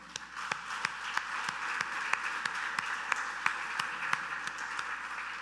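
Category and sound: crowd, audience applauding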